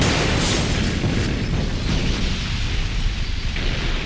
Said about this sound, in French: Il prend deux mains la poignée du détonateur, ferme les yeux et pousse le déclencheur. Dehors, le groupe a atteint l'extérieur de la mine. Ils attendent. Puis un grondement résonne très fort en écho à travers les tunnels.